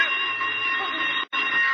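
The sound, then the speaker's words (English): A loud electric alarm bell rings continuously with a harsh, buzzing metallic tone, cutting out for a split second near the end before resuming. “no, it's, it's those electricians testing us something.”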